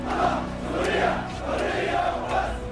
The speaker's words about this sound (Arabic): من جامع خالد بن الوليد التاريخي تنطلق المسيره وتعلو الهتافات الله سوريا حريه وبس في الحقيقه كانوا يردون على هتافات مؤيدي النظام الله سوريا بشار وبس